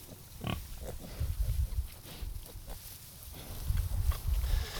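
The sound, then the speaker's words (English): Five piglets on a farm's pastured pig project grunt and snuffle in a busy, overlapping jumble of low snorts while crawling on and around a person lying in a bed of straw, with rustling bursts coming and going throughout and no one speaking. “he was lying in a bed of straw with five piglets crawling on and around him”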